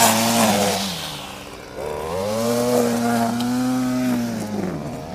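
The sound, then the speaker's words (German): An electric lawn mower cutting the football pitch grass of the FC stadium at Sportpark Müngersdorf, its motor giving a loud, steady buzzing drone that dips briefly in pitch, then rises and holds before sagging again at the end. No one speaks. “Oh, hier wird gerade der Rasen am ja, Stadion schön, mit dem elektrischen äh, aber, Medizin.”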